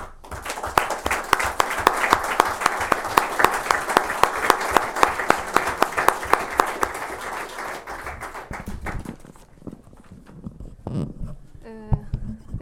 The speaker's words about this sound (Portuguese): E para ele, portanto, peço o vosso aplauso.